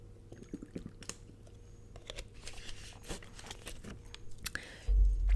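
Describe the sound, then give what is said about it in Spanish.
Someone quietly takes a sip of water: soft slurps, swallows and small mouth clicks over faint room noise, with a dull low thump near the end as something is handled. “Déjenme tomar un traguito de agua.”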